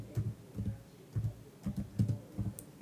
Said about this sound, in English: so you hear me typing.